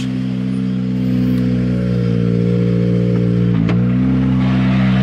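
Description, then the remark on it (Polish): A Skoda Fabia R5 rally car arriving at the stage finish on a slippery surface drones loudly and steadily, its tone holding with a brief clattering blip near the end, no voices present. “A na mecie za chwilę zameldują się Maciej Lubiak i Grzegorz y, Dachowski, Skoda Fabia R5”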